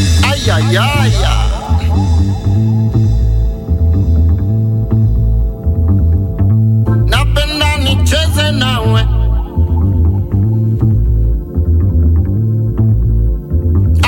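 A music track carried by a steady, throbbing low drum pulse, with melodic vocal lines weaving over it and a brighter, busier burst of percussion midway through.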